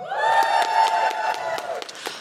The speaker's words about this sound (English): for those of you who have cats give me a round of applause